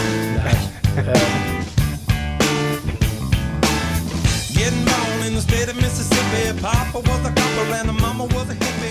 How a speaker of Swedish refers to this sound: Det här är … från 2006. Den låter så här.